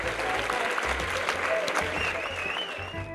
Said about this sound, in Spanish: En algún lugar del mundo, Emma y Nico salen a sus balcones todas las noches para aplaudir a los que arriesgan su vida por cuidarnos.